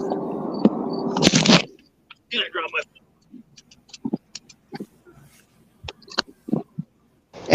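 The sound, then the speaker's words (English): A phone is dropped and fumbled: a loud burst of scraping rustle gives way to a scattered series of sharp clicks, taps and knocks as it's handled. “I dropped my phone.”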